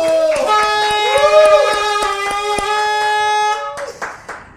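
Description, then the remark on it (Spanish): Sharp, rhythmic claps of applause for Saga Life's coming second anniversary ring out over a loud, steady, wavering horn blare; both cut off after about three and a half seconds, and a voice briefly follows. “Así es que aplausos.”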